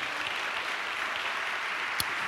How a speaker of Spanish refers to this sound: ¿Cuántos le dan un aplauso a Dios por eso, amado hermano?